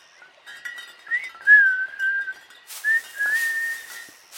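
Someone whistles a wavering tune, a thin clear tone sliding up and down in a few connected phrases, with faint hiss and no talking.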